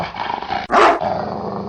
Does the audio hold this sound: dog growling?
yes